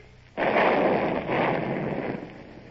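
A ship's guns, trained on a road, fire with a sudden loud boom, followed by a second rolling blast and a long rumbling roar that slowly fades. No voices are heard.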